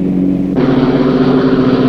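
A tuned-up car with new Champion spark plugs accelerates during a repeated lane-change test: the engine drones steadily, then surges louder about half a second in as the throttle opens, holding a strong, rising roar with no voices.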